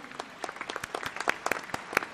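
Applause from a small group, dense irregular claps with sharp bright transients, steady and moderately loud throughout without a clear build or fade.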